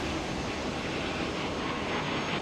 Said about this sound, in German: Die Zuschauer halten die Luft an, als die A320 anmutig 120 Meter über der Startbahn schwebt, die Nase nach oben gerichtet bereit, um in den Himmel aufzusteigen.